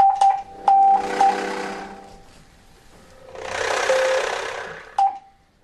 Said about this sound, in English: Let's do feel. We're gonna spell feel. We're gonna have a conversation, Morse conversation. I'll start.